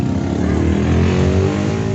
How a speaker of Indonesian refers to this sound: banget dah tuh motor tuh siapa sih ya? kata orang lagi podcast, Nora banget tuh tahu ya